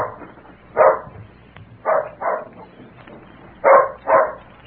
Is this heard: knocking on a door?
no